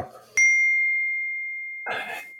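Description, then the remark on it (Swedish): Glasses clink in a toast: a single bright clink rings out sharply, then hums with a clear, sustained tone that slowly fades over more than a second, followed by a soft breathy exhale. “så vi får väl skåla? Vi får eh, skåla och gå vidare helt enkelt. Skål!”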